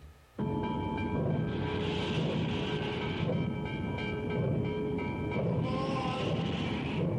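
A train rolls steadily along the rails with a continuous rumbling roar and high metallic squealing tones, starting abruptly after a brief quiet moment and staying loud throughout.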